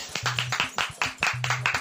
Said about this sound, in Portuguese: Aplausos.